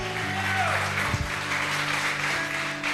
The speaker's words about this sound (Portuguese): Você pode levantar a sua mão direita bem alto, a sua mão esquerda bem alto, e só quem acredita que Deus está trabalhando em favor da sua vida, dê uma salva de palmas, mistura com um grito, celebra! Uh!